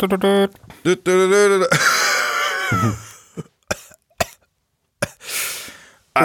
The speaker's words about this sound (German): oh, das hört sich nicht gut als an. Ja, Corona kickt, kickt morgens bei mir. Ich weiß, ich hab, morgens habe ich jetzt immer so ein bisschen Husten, aber das geht dann über den Laufe des Tages geht's weg.